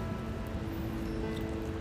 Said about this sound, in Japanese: 雨になったり霧雨になったりああって言いながら傘をさしてちょっと背を丸くして歩いていく人がいます